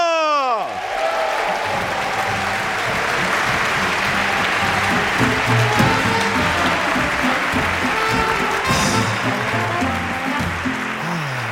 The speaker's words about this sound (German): Hier ist er. Begrüßen Sie mit einem frenetischen Applaus Florian Schröder!